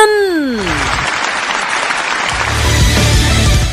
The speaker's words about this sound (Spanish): Ya, ya basta con los aplausos.